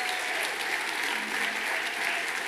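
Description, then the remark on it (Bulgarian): Steady audience applause fills the whole stretch, a dense, even patter of many hands clapping at once with no pauses and no voices rising above it. “ръкопляскането ви е болно от коронавирус.”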